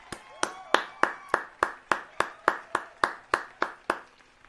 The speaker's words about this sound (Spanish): Fuerte el aplauso para la gente que quiere emprender y que por supuesto no la dejan porque la hunden a impuestos.